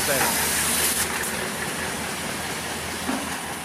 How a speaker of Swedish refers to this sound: det du hör är ljudet från ett gammalt sockerbruk på Gotland.